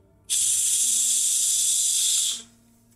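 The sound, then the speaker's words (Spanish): A steady, loud hiss from an unplugged steam iron in a walk-in closet, starting abruptly and holding for about two seconds before fading quickly. No voices, just quiet background noise around it. “Apenas yo dije esa pregunta, al lado de una plancha de vapor, claramente desconectada, y empezó a sonar.”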